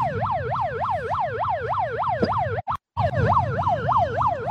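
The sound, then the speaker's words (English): Protesters' sound machines blare a loud electronic siren outside the home of the Israeli ambassador to the United States, wailing in a fast, repeating up-and-down sweep over a rumbling low background, cutting out abruptly for a moment before resuming. No one speaks. “The home of the Israeli ambassador, for those that are tuning in to the U.S., we have a shit ton of sound machines.”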